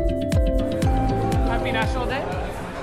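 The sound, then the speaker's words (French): A crowd chattering in a bar in east Toronto, gathered for an event celebrating Belgian national day, many overlapping voices blending into a steady, fairly loud babble with no single speaker standing out, plus a few brief clinks and knocks. “Derrière les baies vitrées du bar situé à l'est de Toronto, la foule se rassemble en ce jour national belge.”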